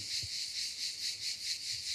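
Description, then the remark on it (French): Cicadas buzz in a steady, shrill drone that swells and fades in a quick, regular pulse, filling the scene at moderate volume with no voices. “Ici, ce sont les cigales.”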